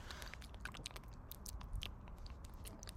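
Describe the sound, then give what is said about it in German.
Wet ASMR mouth noises made right against the microphone: irregular clicks, smacks and chewing-like crackles scattered over three seconds, with a low rumble underneath and no talking. “Ich kann ASMR machen.”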